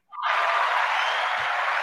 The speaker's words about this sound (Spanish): Y lo tenemos, todo un aplauso para todos, en especial a los que no son los de Back to the Game, quiero decir, a los que no somos nosotros mismos.